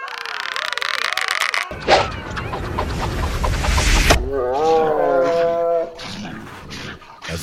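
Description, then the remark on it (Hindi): A tiger roars loudly in a rough, drawn-out burst of growling, then trails off into wavering, whining cries, with no other sounds around it. “बाघ तो मेरे बाण से डरकर भाग गया है”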